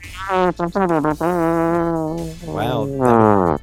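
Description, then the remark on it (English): A voice imitates a trombone-like, buzzy brass sound: a few short stuttered blasts, then one long sustained tone that wavers and slides, ending in a couple of rougher, raspy fart-like bursts. “That, that, that, was that was somewhere between a trombone and a fart.”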